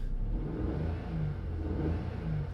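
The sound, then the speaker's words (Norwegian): A fossil-fuel car engine roars steadily as the accelerator is floored, its deep droning tone surging slightly, with no one talking over it. “Når du tråkker gassen i bånn, så bruker du hvor mye hestekrefter bruker du det er effekten din.”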